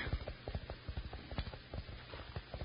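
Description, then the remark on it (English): A horse gallops in a quick, steady rhythm, its hoofbeats thudding in rapid clusters, heard muffled through the ground by a listener with his ear pressed to it on a dark trail. No one speaks over it. “My ear close to the ground, I can hear his horse running.”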